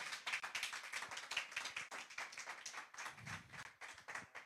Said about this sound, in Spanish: Alguien tiene un aplauso fuerte al Señor.